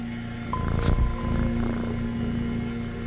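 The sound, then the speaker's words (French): A cat purrs steadily, a low continuous rumbling drone that holds through the whole stretch, with a brief rustle near the start and no voices. “Le ronronnement du chat.”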